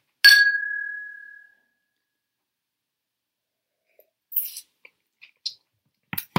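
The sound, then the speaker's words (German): Two glasses, raised in a toast with whisky, clink once sharply, leaving a bright ringing tone that fades over about a second; after a pause, a few quieter clicks and taps follow. “Dann ja. Prost.”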